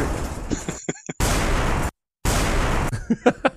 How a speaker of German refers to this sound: Kannst du mal die Explosion raus? Warte, warte.